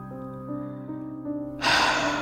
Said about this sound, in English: Arnott stifled a yawn.